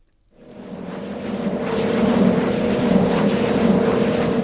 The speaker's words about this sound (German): Mit jeder Umdrehung erzeugen die mächtigen Rotoren der Windkraftanlage Strom.